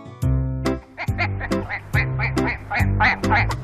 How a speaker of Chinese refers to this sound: 小鸭子走过来，它也觉得很好奇。 嘎嘎，咦，这是什么东西呀？